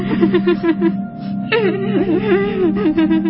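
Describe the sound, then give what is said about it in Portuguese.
Women cry loudly in long, wavering wails and sobbing moans, sustained for a few seconds, with a brief break in the middle before the crying swells again. No one speaks. “Aí elas começaram a chorar alto outra vez.”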